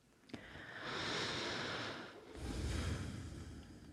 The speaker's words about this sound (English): I've been forgetting to do my deep breathing. Maybe I need to start doing that again.